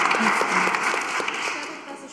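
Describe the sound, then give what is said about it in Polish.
Steady applause from an audience at a magazine premiere event in the Studio Teatr Galeria, a dense wash of many hands clapping at a fairly even loudness that tapers slightly toward the end. “Drodzy Państwo, wielkie brawa.”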